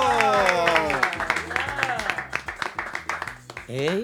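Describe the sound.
A short burst of clapping and applause welcoming the members of a típico music group on the Típico Head Radio Show, sharp claps in a loose rhythm, heard under loud voices or sung tones that swoop up and down, everything fairly loud.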